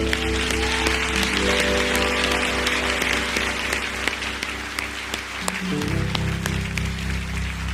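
An audience at Igreja Batista Atitude in Barra da Tijuca applauds the Lord after a prayer in a steady, dense wash of clapping that lasts the whole time, with sustained keyboard chords holding underneath and shifting near the end.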